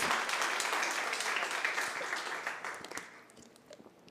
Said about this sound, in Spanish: Démosles aplauso bien fuerte porque Él se lo merece.